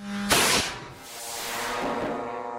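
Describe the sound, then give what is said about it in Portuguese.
Small drones resembling tiny model aircraft are launched by Hamas operatives in the Gaza Strip: a sudden loud whoosh, then the motor keeps up a steady, buzzing drone with a tonal whine as it moves off. No voices are heard. “é o som de drones a serem lançados por operacionais do Hamas na faixa de Gaza.”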